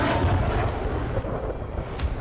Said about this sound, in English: You still are a kid, joked Captain Taylor when suddenly a sonic boom shattered the twilight into pieces.